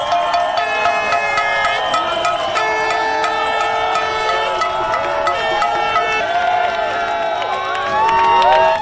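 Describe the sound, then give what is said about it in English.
A large crowd in the street celebrates, cheering and shouting continuously, dense overlapping voices and whoops rising in excitement, with a louder swell of screaming near the end. “So then came Saturday, and the incredible celebration felt not just across this country, but around the world.”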